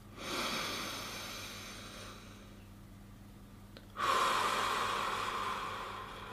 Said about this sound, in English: And if you are, we can we can take a deep breath together. Just follow my hand, yeah. Inhale. Exhale. On the next breath, really force it into your stomach.